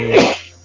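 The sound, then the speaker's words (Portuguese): A single sharp sneeze bursts out, a quick noisy explosion that peaks almost at once and then trails off into quiet. “mas é saúde, mas oh, é complicado. Saúde.”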